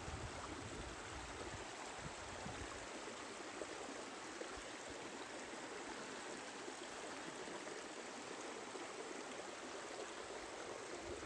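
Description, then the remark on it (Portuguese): A steady rush of flowing water in a forest, like a stream running over rocks, fills the whole stretch evenly with no pauses, voices or other distinct sounds standing out. “Escute o som da natureza.”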